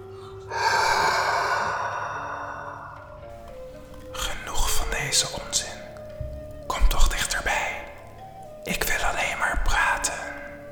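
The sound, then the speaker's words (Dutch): Heavy, drawn-out breathing of a ghostly figure, a long airy exhale followed by several rasping, sighing breaths, with no speech over it. “De man wilde zich net omkeren toen hij onderbroken werd door een zware ademhaling van de gedaante.”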